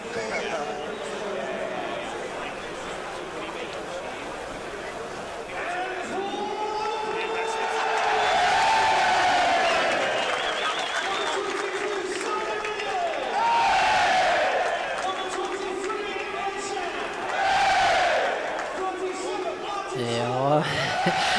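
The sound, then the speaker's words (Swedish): A large stadium crowd before kick-off at a Manchester United match murmurs and roars in a dense, continuous wash of voices, swelling into louder surges of cheering and chanting at intervals, with a public-address voice announcing United's line-up faintly heard beneath. “Jag lämnar kvar lite grann där så vi får, får njuta in lite stämning från när vi var där.”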